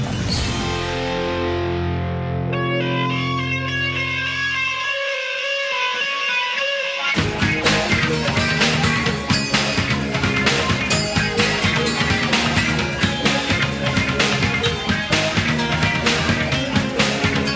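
An indie rock band's first single, from its first album, plays with no talking: a wavering, effects-laden intro for several seconds, then the full band bursts in loud with driving drums and distorted guitars.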